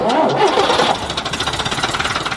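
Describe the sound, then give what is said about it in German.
A bus engine cranks with a rising whir, then catches and settles into a steady, rapid chugging idle with a regular rhythmic pulse. No voices are heard. “Damit dieser Bus auch weiterhin fahren kann, braucht er Geld.”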